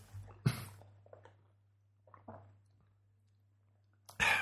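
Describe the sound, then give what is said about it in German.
Sipping of iced coffee through a straw: a short slurp, then quiet wet mouth and swallowing noises, and a louder gurgling draw at the end, with no talking. “So, Kaffee mit Strohhalm. Grüß ja, äh, Prost.”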